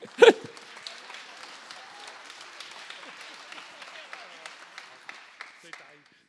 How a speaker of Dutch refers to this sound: Nou ja, laten we vooral de lijsttrekkers ook even uh, welkom heten met een groot applaus.